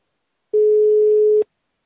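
A single steady electronic ringback tone sounds for just under a second, clear and fairly loud, with a clipped start and stop, like a phone line ringing on an outgoing call.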